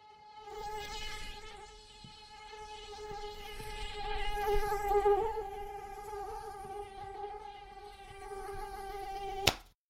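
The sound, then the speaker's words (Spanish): Steady whine of mosquitoes buzzing, a sustained high-pitched drone that wavers in pitch for several seconds and ends with a sharp click. “Estoy infestado de mosquitos.”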